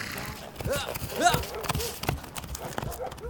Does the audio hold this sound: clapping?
no